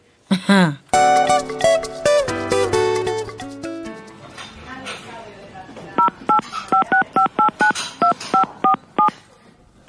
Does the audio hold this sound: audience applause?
no